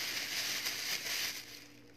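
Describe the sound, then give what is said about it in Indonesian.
A thin PE (polyethylene) plastic bag crinkles as it's squeezed: a dense, bright, crispy crackling that runs steadily for about a second and a half before thinning out, with no voices. “PE itu lebih cempreng renyah. lebih uh, lebih apa sih lebih ringan suaranya iya lebih ringan”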